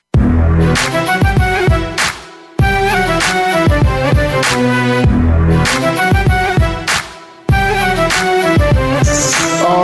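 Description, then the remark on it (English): Loud, upbeat instrumental theme music of the Ray Ellis Sports show on the Voice America Network, with punchy repeated phrases and strong percussive hits, cutting abruptly between short looping sections; no one speaks over it. “right, you hear that music, you know the show.”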